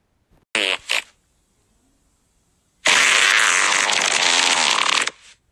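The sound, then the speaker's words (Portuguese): A cartoonish fart sound effect: two quick, sputtering bursts, a brief pause, then one long, loud, raspy blast lasting about two seconds, with no talking. “Será que tudo é por causa do nosso pum?”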